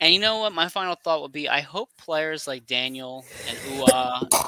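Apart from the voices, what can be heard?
sneeze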